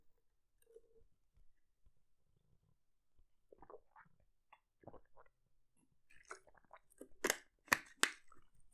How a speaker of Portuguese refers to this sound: Um, yeah, Deixem-me só beber água. com gás